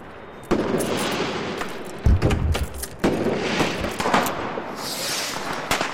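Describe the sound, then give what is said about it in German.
New Year's Eve fireworks rockets explode up at the level of a tower's highest bell in a dense, continuous barrage: sharp bangs and crackles overlap throughout, with one heavier low boom partway through and a hissing, whistling burst near the end. “Beim Rausschauen aus einer Luke trifft mich fast eine der Raketen, die hier oben explodieren.”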